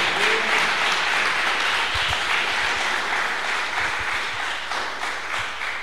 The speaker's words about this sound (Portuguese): Você pode aplaudir ao Senhor e receber essa palavra.